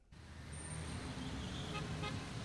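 Steady street traffic noise heard from up on a rooftop rumbles throughout, a dense wash of engine noise, with a car horn sounding briefly amid the din. No one speaks.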